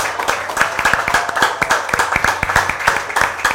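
A room full of people at an event applauds steadily, dense overlapping handclaps forming a continuous, fairly loud wash of clapping that holds throughout without letting up.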